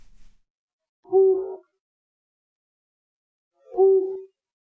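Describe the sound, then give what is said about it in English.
Two low, short hoots from a flammulated owl, played as a recorded bird call, spaced about three seconds apart, each a soft muffled note standing alone against silence. “Flammulated owl. You didn't even hear half the hoot before you answered.”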